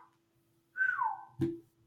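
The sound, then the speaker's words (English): A person whistles a single clear note that slides downward in pitch for about half a second, followed by a brief soft thump. No one speaks. “Keep the whistle in there for sure.”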